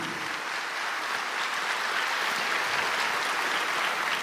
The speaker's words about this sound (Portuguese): Pode aplaudir ao Senhor.